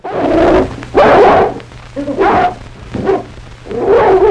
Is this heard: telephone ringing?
no